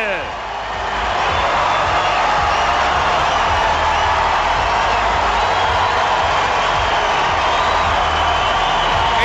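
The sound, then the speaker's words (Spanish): A packed arena crowd in Australia roars in a loud, sustained ovation welcoming tennis player Rafael Nadal onto the court, thousands of cheers and shouts blending into a dense wall of noise that holds steady throughout. “La gente de Australia va a empezar a rugir dentro de pocos segundos. Ahí escuchan la ovación a Rafael Nadal.”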